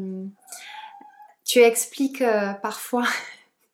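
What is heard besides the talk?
cat making noise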